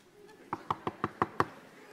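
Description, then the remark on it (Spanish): Six quick, evenly spaced knocks on a door, sharp, rapping out a steady rhythm with quiet before and after. “Le tocó y sale una mujer bien hermosa”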